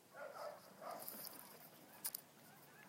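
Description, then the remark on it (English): A dog barks twice in quick succession, short and somewhat muffled, followed by a couple of faint clicks against a quiet background hiss. “Sorry about that dog.”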